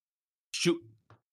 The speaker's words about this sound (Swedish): Nu måste jag snyta mig så att eh, ta över någon annan.